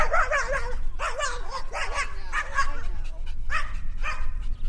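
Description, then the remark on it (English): A small white dog playing on grass with its owner barks frantically at a passing dog in rapid, high-pitched bursts, yipping and whining between barks, loud over a steady low rumble of outdoor background noise. “we pass a small white dog playing on the grass with its owner. It takes one look at Dillon and it loses its mind.”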